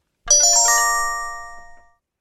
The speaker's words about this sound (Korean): 그때 손에 쥐고 있던 휴대폰으로 메시지가 들어왔다. 저장되어 있는 번호는 아니었다.